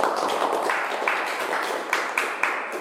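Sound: audience applause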